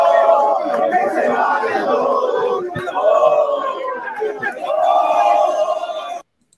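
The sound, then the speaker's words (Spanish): A crowd of football fans shouts and jeers loudly and continuously at Cristal's workers, voices rising and falling in overlapping waves of angry yelling before cutting off abruptly. “Uy, ay, ay, están les están gritando a los trabajadores de cristal, los hinchas ahora.”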